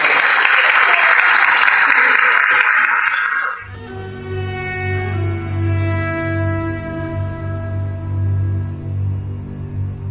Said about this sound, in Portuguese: Então vou pedir mais uma salva de palmas agora para eles que vieram, eles que, eles que fazem tudo isso.